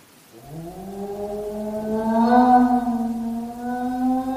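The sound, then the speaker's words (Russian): A dog howls in one long, sustained, mournful note that rises slightly in pitch and swells in volume, holding steady for several seconds with no voices present. “Вы слышите, Холмс? Это собака.”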